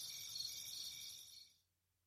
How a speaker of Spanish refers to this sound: Vivo en el campo y por la noche hay mucho silencio. por la noche solo se oyen los grillos.